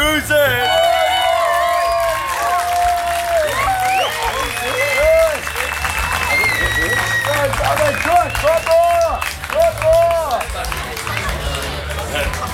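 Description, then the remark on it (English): An audience claps steadily and loudly throughout, a dense wash of hand claps mixed with cheering, whoops and excited shouting voices rising over it. “I mean, I've got to get him clapping. Clap on, you bastards! Clap on!”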